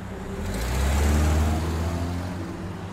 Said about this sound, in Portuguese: Dois anos depois, ele se lembraria de um carro branco da marca Escort, parado na esquina, com dois homens dentro. Quando o vigia se aproximou, os ocupantes do carro viram ele e deram partida, levando o carro em direção ao estádio.